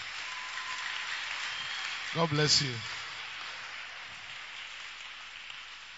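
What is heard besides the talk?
audience clapping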